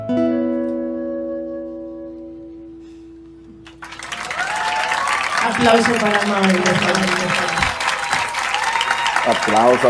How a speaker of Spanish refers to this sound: aplauso, aplauso.